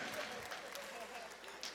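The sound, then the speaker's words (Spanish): Steady applause from an audience at a children's congress for the children who received tablets as prizes, a dense, even wash of many hands clapping at once, with a few voices faintly mixed in underneath. “Así que un aplauso para todos los niños que recibieron su tablet.”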